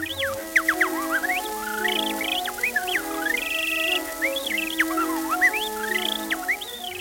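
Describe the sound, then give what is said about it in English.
A man whistles imitation birdsong, with rapid chirps, swooping trills and a sustained warble, over a steady orchestral accompaniment of strings and winds, in a 1916 recording that sounds old and somewhat thin. “This is an orchestra in 1916 playing a song called Narcissus. It has a special accompaniment fake bird noises.”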